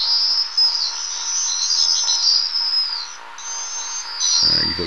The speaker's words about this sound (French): Alors le martinet, lui, il chasse en groupe, hein, et quand il chasse, on les entend crier, très fort, tous ensemble.